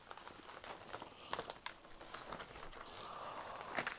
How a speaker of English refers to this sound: Make sure I can I got enough paper for this present I'm finna wrap.